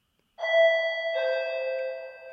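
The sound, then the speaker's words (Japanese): A doorbell chime at an apartment front door rings out clearly, two bright bell-like notes, the second struck a moment after the first, both ringing on and slowly fading. No voices are heard. “チャイムが鳴りました。”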